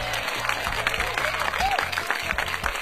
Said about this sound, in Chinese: 来，又到了大龙吐槽一周新闻的时间了，来点掌声，马上开始。